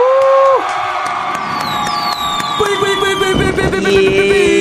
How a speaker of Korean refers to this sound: 자, 박수 네. 효과음 준비해 주시고요.